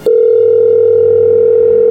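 telephone call tone

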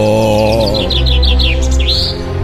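birds chirping

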